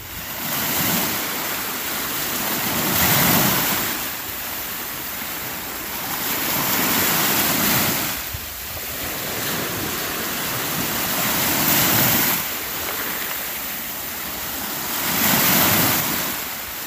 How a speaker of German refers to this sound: und jetzt kann es zwar etwas hallig klingen, aber vielleicht auch ein bisschen Atmo, denn im Hintergrund, ich habe das Fenster aufgelassen, ist die Ostsee zu hören, die nur wenige Meter, vielleicht so knapp 100 von mir entfernt ist.